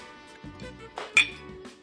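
glasses clinking

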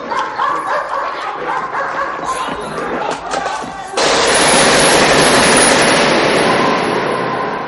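dogs barking

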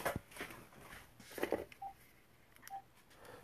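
phone beeping

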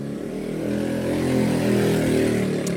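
motorcycle passing by

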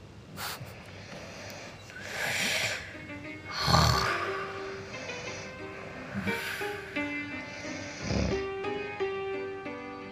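snoring sound effect

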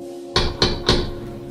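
knocking on a door

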